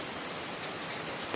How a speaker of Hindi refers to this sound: जैसे अभी बैकग्राउंड में आपको दिख रहा है ना कि बारिश हो रहा है